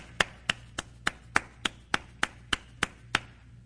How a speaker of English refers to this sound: That's what we do. We clap after they get baptized, right? Isn't that what we do? We clap. Why do we clap? What's the point? We're happy. We're excited about what just happened.